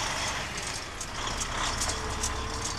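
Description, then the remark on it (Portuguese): A milk truck engine rumbles steadily and fairly loud throughout, with brief hissy bursts that could be air brakes releasing; no one speaks. “Temos eh, caminhões eh, de leite, neste momento estamos a fazer a catar 42, 43 caminhões de leite diário”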